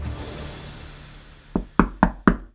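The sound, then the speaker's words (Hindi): Four firm knocks on a hotel room door in quick succession, a waiter knocking on the rooms one by one to ask the guests, loud, following a quiet low background hum, with no one speaking. “manager की डांट सुनकर वेटर एक एक करके सभी कमरों का दरवाजा नॉक करके पूछने लगा”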